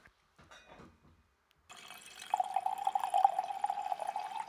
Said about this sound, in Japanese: いやこれ恒例になりつつありますけども、はい、こうボトルから1杯目を注ぐ時の音が一番いいよね、い、いねうんなんかこう空気が入るというか、うん、うん、初めまして的な、ね